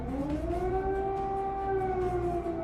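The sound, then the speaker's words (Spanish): An air raid siren wails overnight in Kyiv, the capital of Ukraine, during the Russian invasion in February, in a steady, sustained tone with strong harmonics, its pitch rising slightly and holding level over low rumbling background noise, with no voices. “Overnight, in the capital of Ukraine, the sound of missile strikes and air sirens.”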